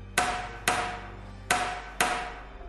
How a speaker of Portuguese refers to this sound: A ressuscitada bateu com Aldraba mais duas vezes.